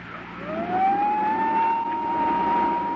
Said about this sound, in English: Still keeping the vacuum cleaner going, I made a dive for the desk.